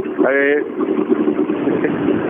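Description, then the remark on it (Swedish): A rally car engine idles roughly, a steady, uneven rumble that holds for a couple of seconds, with a brief rising tonal burst near the start. “Med den ettrigaste tomgångs, tomgångsvarvet.”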